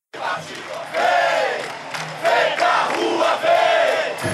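crowd, street protest crowd chanting

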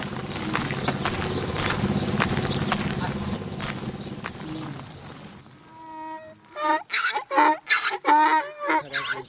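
animal, donkeys braying

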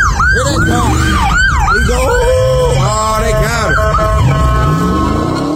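vehicle, police car siren

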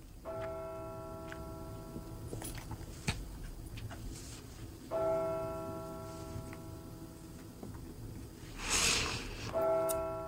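signal or alarm, church bells ringing

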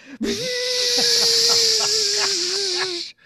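household object, blender running

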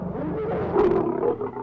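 animal, lion roar

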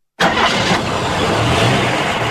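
vehicle, car engine running

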